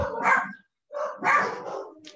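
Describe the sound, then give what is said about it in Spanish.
A dog barks loudly in a house full of dogs, a few sharp, drawn-out barks with a short pause after the first, and no talking over them. “Claro, perdón, pero es una casa de perros”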